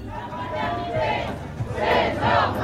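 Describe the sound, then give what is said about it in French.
A large crowd of more than 500 protest marchers chants together outdoors as they enter Calais, France, under a blazing sun, voices swelling in rhythmic waves over a steady low rumble, loud. “Ils sont plus de 500 à entrer dans Calais sous un soleil de plomb.”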